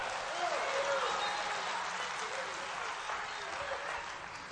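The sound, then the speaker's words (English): A church audience claps their hands in a steady, dense wash of applause that fills the room, with a few faint voices rising through it before it gradually eases off. “Give the Lord a hand clap.”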